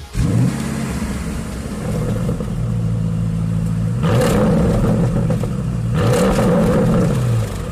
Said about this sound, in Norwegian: Og denne bilen har nå tatt tilbake rekorden på Nürburgring. Med en hysterisk V8 på hele 640 hestekrefter så gjør denne bilen 0 til 100 på 3,3 sekunder, på vei til en toppfart på over 300 km i timen.